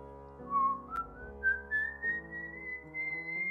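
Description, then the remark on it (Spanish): A person whistles an eerie, slowly rising melody imitating the whistle of a legendary ghost, with notes climbing step by step over a few seconds, fairly loud with no talking. “Yo escuché un disco eh, cuando estaba niño de la leyenda del silbón.”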